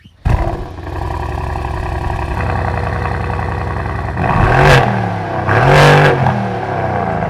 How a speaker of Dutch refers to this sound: Kleine motoren, veel pk's. Dit is gewoon weer een V8. Gewoon ah, lekker. Verlicht uh, verlichte letters in de dorpel? Ja, hij heeft eh, het volledige pakketje erop. Superstrak, ik wil heel graag het geluid horen. Ik ga hem aanslingeren.